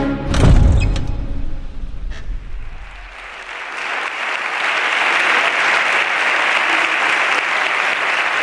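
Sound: applause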